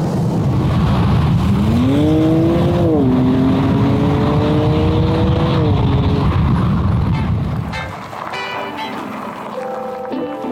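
A sports car engine drones loudly and steadily while driving, its pitch rising and holding through gear changes, then dropping to a lower, quieter hum near the end.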